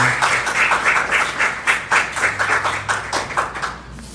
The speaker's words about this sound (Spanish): Quiero que le des un fuerte aplauso al Señor, a la palabra de Dios.